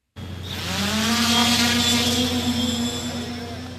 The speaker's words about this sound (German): Eine Drohne steigt auf. Etwas unsicher gesteuert von der deutschen Außenministerin Annalena Baerbock besucht in Manila ein Boot der philippinischen Küstenwache.